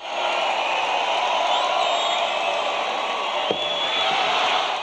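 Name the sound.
applause and cheering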